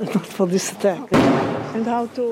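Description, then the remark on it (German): A single heavy blast of Israeli artillery, fired from guns near Be'eri toward the Gaza Strip, booms out midway, sharp and loud with a rumbling decay, while a man keeps talking before and after it. “Immer wieder knallt es markerschütternd. Die israelische Artillerie feuert aus Geschützen unweit von Beeri auf den Gazastreifen.”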